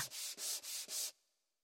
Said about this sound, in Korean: 목재가 도착한 날. 나무의 거친 표면을 사포로 매끈하게 다듬었습니다.